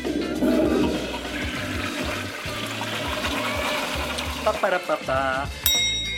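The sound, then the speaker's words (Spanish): A toilet flushes, a loud, steady rush of water lasting several seconds before breaking into gurgles and sputters as the tank drains and refills. “Ay, ya me dieron ganas de ir al baño otra vez.”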